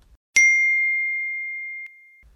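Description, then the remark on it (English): A single bright phone notification ding for a like, comment or message, with a sharp attack and a clear ringing tone that sustains and slowly fades for about a second and a half, heard alone. “Yes, every like, comment, message, every time you hear that”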